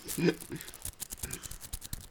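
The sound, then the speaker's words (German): Sandwich paper with an Octan coin inside is crumpled and rustled, producing a steady run of irregular, crisp crackling bursts with a brief faint voice near the start. “Ja, das, ja, das Butterbrotpapier, da ist aber eine Münze drin, das höre ich.”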